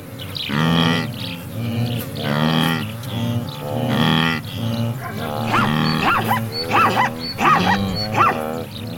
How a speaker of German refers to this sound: Das zum Schluss gerade, das war nochmal ein Zebra, vermutlich eine Zebrastute, die ihr Fohlen in dieser Masse aus Tieren sucht. Weil jedes Tier eine einzigartige Stimme hat, erkennen sie einander auch über längere Distanzen.